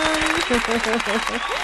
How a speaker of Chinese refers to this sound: 大师兄呢真的是操作的一个非常的一个漂亮，真的要给大师兄来一个掌声。